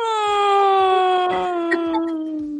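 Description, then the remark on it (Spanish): A motorcycle passes by, its loud, buzzing engine drone holding a steady pitch that slowly slides lower as it goes, with faint rhythmic low thumps underneath and no one talking. “Pasó, pasó, pasó una moto.”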